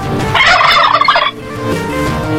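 A turkey gobbles once, a loud, rapid warbling burst lasting about a second, then fades into a quieter, steady background hum.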